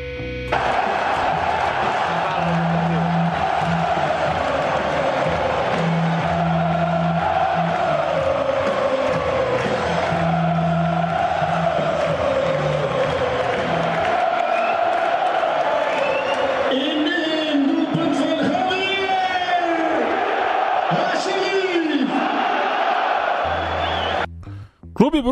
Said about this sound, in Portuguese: É, e começou de, depois, né, no, no pós-jogo, a, a, fazer o coro, né? De o, o, o, o, o, o, o. E daí pegou, então virou a música do gol ali do, do Bruges. Então a gente vai ouvir o pessoal cantando.